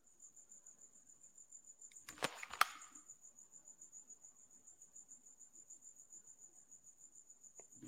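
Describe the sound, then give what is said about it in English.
A cricket chirps steadily and rhythmically inside a house, its high trill pulsing without pause, interrupted early on by a couple of sharp knocks or clatters. “So here's the here's the thing with crickets. They like mass produce very quickly.”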